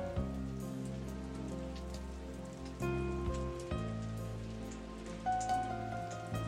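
Light rain patters steadily and evenly throughout, a soft continuous hiss of drops on a surface, beneath sustained, slowly changing musical tones.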